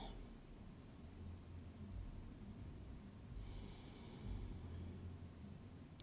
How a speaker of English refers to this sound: And another deep breath.